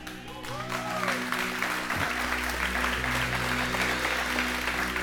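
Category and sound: crowd, church audience applauding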